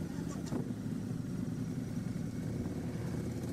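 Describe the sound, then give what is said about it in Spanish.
A motorcycle engine runs steadily, giving a continuous low, throbbing rumble that stays fairly loud throughout, with no voices over it, as the rider heads out at night to do deliveries. “después de ahorrar 16 años, con su moto se iba a hacer delivery.”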